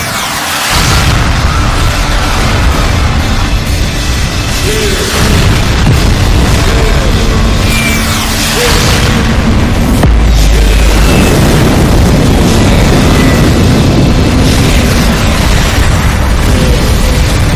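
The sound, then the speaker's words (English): Nuclear bomb explosions: a loud, continuous roar of deep rumbling booms with repeated surges and crackling bursts, filling the whole clip with no voices. “They're nuclear bombs, you fucking idiot.”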